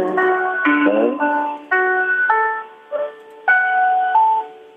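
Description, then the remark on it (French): A solo piano plays a slow, moderately loud melody of single sustained notes and chords, each struck and then ringing and fading, at a live concert with a silent audience and no voices or other instruments. “Il est seul au piano, écoutez.”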